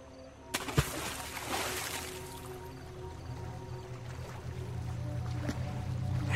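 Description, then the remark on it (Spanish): A sudden, loud splash into a river, like someone jumping into the water, followed by a brief wash of churning water that settles into a low, steady rumble of moving water. “como si alguien hubiera saltado al agua.”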